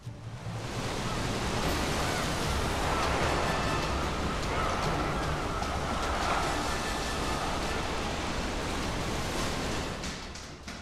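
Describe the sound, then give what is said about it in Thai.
Rough waves of the Indian Ocean and strong wind roar continuously around the ship Sadana on 30 July 1948, with waves rising high like hills. A dense, loud wash of surf and gusts swells and surges throughout without pause, and no voices are present. “ในวันที่ 30กรกฎาคม คศ1948เรือซาดานาได้ประโจนคลื่นลมรุนแรงในมหาสมุทรอินเดียคลื่นก่อตัวสูงเหมือนเนินเขาเรือถูกดันสู่ยอดเขาชั่วขณะหนึ่ง แล้วก็ถูกโยนลงสู่หุบเขาในอีกชั่วขณะ”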